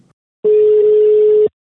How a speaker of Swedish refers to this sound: Ska jag ringa? Ring honom. Jag ringer. Vi se om han kan svara.